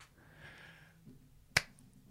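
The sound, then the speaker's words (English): One sharp, crisp hand clap cracks out after a stretch of quiet low murmur and faint hiss, standing alone with no one talking, clapping at the end of a fan fiction reading. “Feels weird to clap that.”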